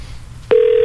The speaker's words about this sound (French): Mais tu un téléphone de maison, c'est rare que ça sonne, hein, ça.